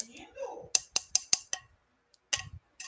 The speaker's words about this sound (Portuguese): Isso é um isqueiro? Você anda fumando?